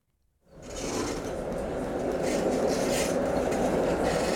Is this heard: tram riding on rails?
yes